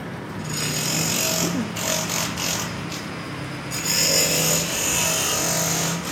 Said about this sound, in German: während der Baustellenlärm sie fast übertönt.